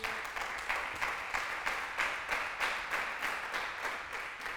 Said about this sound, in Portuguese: Ah, você podia dar um aplauso a ele por isso.